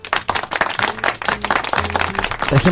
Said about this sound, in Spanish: gente aplaudir. Gracias. Son los eh, Funko atrás que están tomando vida.